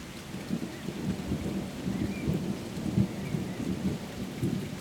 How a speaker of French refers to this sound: Je me suis juste dit, euh, mais attends, si j'ouvrais la fenêtre et juste que, bah, que je te faisais écouter la pluie et puis l'orage. Parce que c'est vrai que l'air de rien, c'est c'est toujours une ambiance euh, ultra particulière